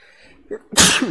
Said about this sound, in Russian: О, будь здоров.